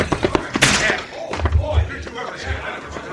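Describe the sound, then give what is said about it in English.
A man is slammed into a bar during a fistfight: a sharp, loud crash followed by heavy, low thuds and scuffling, with muffled voices mixed in. “You hit him into the bar, knock him out.”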